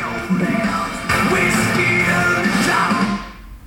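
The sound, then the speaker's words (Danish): Loud classic rock music blares from a radio station played through an Apple TV box, with dense guitars and a strained singing voice, for a few seconds before abruptly being stopped by pressing the middle of the arrow keys. “Og det blev lidt højt, så jeg pausede eller stoppede lige øh, radioen igen.”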